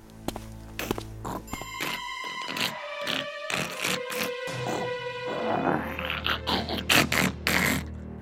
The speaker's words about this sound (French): c'était le bruit du crocodile. C'est sûr, il n'est pas ici.